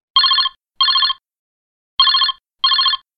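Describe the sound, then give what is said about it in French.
A telephone keeps ringing loud in the classic double pattern: two pairs of bright, trilling rings separated by a short pause, with no voices. “Eh ben, décidément, le standard est en surchauffe aujourd'hui, le téléphone n'arrête pas de sonner.”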